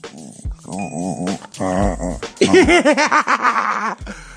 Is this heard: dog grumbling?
yes